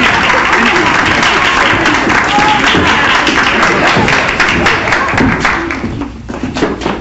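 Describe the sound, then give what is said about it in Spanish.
Loud, sustained applause from an audience, a dense wash of many hands clapping for about six seconds before thinning out slightly at the end. “Aplausos, aplausos, aplausos”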